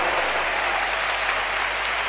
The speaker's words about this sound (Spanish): Aplaudido, muy aplaudido Darío Brizuela que acaba de irse al banco y ha entrado Luz